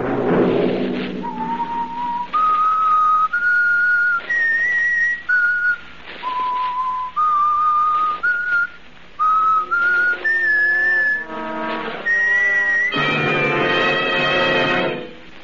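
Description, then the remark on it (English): A person whistles a slow, clear melody for the radio show The Whistler, holding long notes that step up and down in pitch, with a fuller, busier passage near the end. “Have you heard the whistler?”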